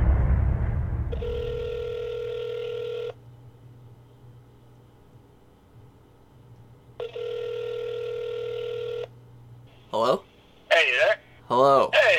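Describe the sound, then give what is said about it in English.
A phone line rings twice, each long electronic ring separated by a quiet pause, followed by a few quick warbling, chirpy tones as the call connects; clear, with no talking. A phone call is being placed to a man. “Um, so let's give him a call and see what he has to say.”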